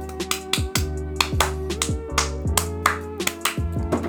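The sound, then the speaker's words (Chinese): A run of roughly a dozen sharp hand claps, made with the hands held farther away, at a fairly steady, slightly uneven pace, each a crisp slap, over a low, sustained humming musical bed with no voices. “我刚刚说一个掌声啊，我也不知道拍了几下，大家可以回复我数一下吗？”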